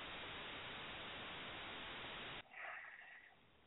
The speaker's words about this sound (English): So, so there's some static. Anybody hearing that static?